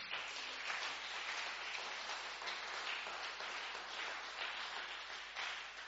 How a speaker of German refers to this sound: Ja, es ist ein bisschen abgedrosselt, aber trotzdem einen Applaus für das Welcome-Team.